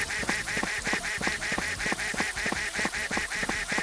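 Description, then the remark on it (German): A video game duck quacks over and over in a fast, steady rhythm, roughly four nasal quacks per second, loud with no talking. “Irgendwo dreht die Ente auch wieder um, da muss man aufpassen.”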